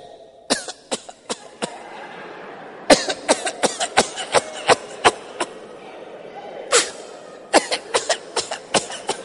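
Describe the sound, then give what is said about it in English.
A voice imitates goats coughing: three clusters of short, harsh, rapid hacks, each run holding several sharp bursts, loud, with brief pauses between them. “I didn't know they were goats. I thought it was somebody.”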